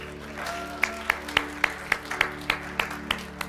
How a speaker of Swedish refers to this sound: En applåd